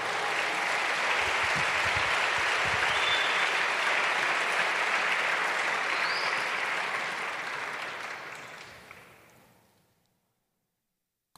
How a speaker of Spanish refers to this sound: Mm, dale un aplauso al Señor, por favor.